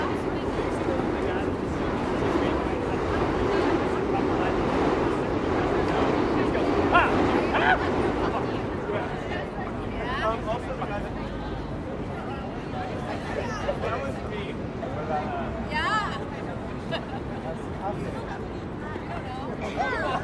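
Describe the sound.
Dense chatter of tourists fills Times Square in New York, many overlapping voices blending into a steady murmur with occasional brighter calls and shouts rising above it, continuous and moderately loud throughout.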